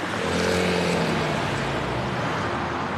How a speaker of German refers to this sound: Also du kannst jetzt, gerade hörst du natürlich, dass der Verkehr jetzt vor uns fährt. Ne? Das heißt, es ist ziemlich sicher rot.